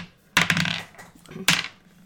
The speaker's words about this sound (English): both rolled a six, so we got to roll again.